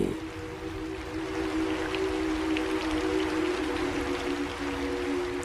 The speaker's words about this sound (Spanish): El granizo sigue, el viento continúa. El estruendo de los elementos alcanza altura.